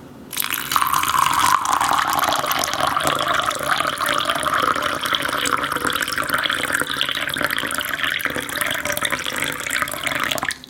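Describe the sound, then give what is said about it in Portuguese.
A man pours a steady stream of water into a pan over tapioca pearls for bubble tea, a continuous splashing hiss lasting about ten seconds before stopping abruptly, with no voices. “Se você, se, você, puder colocar na edição depois, só, um, só o barulhinho da, das pérolazinhas caindo na panela e dele colocando água em cima dessas pérolas.”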